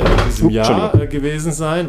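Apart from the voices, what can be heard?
chair creaking or scraping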